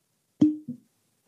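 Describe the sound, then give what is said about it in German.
A bottle is opened with a single sharp pop that rings briefly with a hollow tone, followed by a short second glugging burst. No voices are heard. “Es ploppt und kluckert.”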